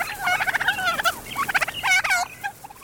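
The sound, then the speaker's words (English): A domestic turkey gobbles in rapid, warbling bursts, several rattling calls in a row, loud and clear with no other sounds around them. “soon turkeys were gobbling in farmyards over much of the world.”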